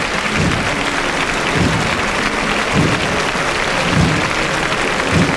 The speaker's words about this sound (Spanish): ahora una nazarena están aplaudiéndole al ejército. Al ejército, sí. A la bandera. Sí, la iniciativa ha partido de aquí, de este sector, aquí a mi espalda, y se ha extendido rápidamente el aplauso prolongado.